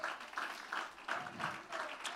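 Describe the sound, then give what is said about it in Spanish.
An audience applauds together for God, steady dense clapping with a few rhythmic surges, moderately loud and continuous for a couple of seconds with no one speaking over it. “ese aplauso para nuestro Dios.”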